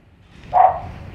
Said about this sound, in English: This dog that the uh, when the windshield wipers go in the truck, oh, she just goes berserk. It's like she like she thinks they're an animal or something, and she's going to get it